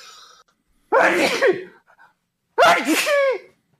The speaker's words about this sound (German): ich muss niesen.